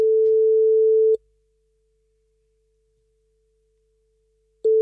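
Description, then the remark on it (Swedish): A tone from a new telephone plays on Mix Megapol radio during a call to a listener in Jokkmokk: a steady, single-pitched beep lasting about a second, then a long silence of several seconds before the same tone starts again. No one speaks. “Den här nya telefonen, den har helt andra toner.”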